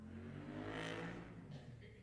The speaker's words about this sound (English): Sorry, motorbike went past, I didn't hear.